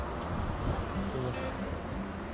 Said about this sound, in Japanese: うるさいでしょうかね車の音が